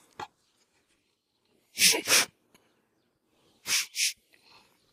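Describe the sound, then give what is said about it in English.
Someone imitates a teacher sniffing a student for the smell of weed: two quick pairs of sharp, breathy sniffs separated by a short pause, with no talking around them. “Just leaning over me, sniffing me, and I look at him real slow.”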